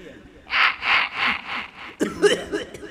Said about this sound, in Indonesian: kalau batuk tapi dikasih eko ini nggak ya berwibawa gitu ya